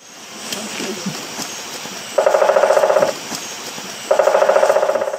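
A woodpecker drums twice in quick, rattling bursts, each roll lasting about a second, loud against a soft outdoor background.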